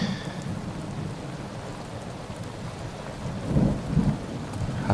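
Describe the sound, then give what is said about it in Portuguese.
Steady rain pours down in a dense, hissing wash, with a low rumble of thunder swelling briefly near the end. No voices are heard. “Ah, essa chuva.”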